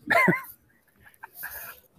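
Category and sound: animal, puppy barking and whimpering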